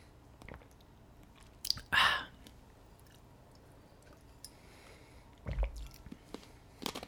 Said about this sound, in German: Oh. Stück Eiswürfel. Ups. Ähm, erstmal kaputt gekaut.